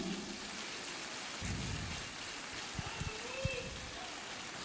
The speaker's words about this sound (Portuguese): Está caindo uma chuvinha na cabeça de alguém aí, viu? Você que está nos visitando, essa é a nossa igreja. Quando a gente fala que aqui cai água do céu, cai.